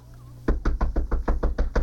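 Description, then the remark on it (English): A steady series of about nine firm, loud knocks on a wooden castle door, evenly spaced, following a brief stretch of quiet with a low hum. “See, I told you someone was coming up the stairs.”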